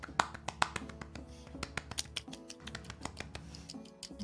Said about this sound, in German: alle klatschen so ein bisschen.